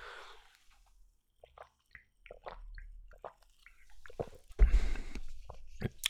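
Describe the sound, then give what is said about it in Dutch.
Quiet mouth sounds of sipping a drink with only a few leftover bubbles: small wet slurps and clicks, then a louder fizzy gulp near the end with a faint hiss of bubbles. “Ik ga gewoon eens drinken.”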